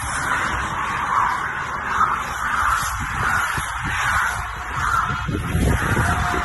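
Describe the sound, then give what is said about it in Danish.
A rapid string of racing bicycles whooshes past up close, each pass a brief rising-and-fading rush of air and tyre noise, one after another over a steady roaring background. “Og vi stod helt tæt på det, og de der lyde, som cyklerne gav”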